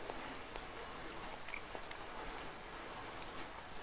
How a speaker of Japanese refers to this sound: で今ね食洗機が回ってるんですようるさいでしょなんかホワイトノイズ的に後ろに 食洗機ノイズが入ってますけどまあ生活音ということでご了承ください